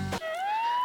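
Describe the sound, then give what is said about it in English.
A voice imitates an ambulance siren with a single rising wail, starting after a brief breathy burst. It sounds steady and fairly loud, with no other talk. “Woo, woo. That's the siren, the ambulance.”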